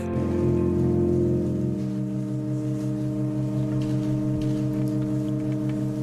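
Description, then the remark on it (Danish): A loud, sustained musical chord drones steadily in a church in Germany, then shifts to a new chord about two seconds in and holds unbroken to the end, with no voices. “Det du hører lyden af her, det er lyden af et akkordskift.”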